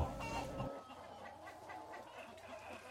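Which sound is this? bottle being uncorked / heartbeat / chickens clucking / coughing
chickens clucking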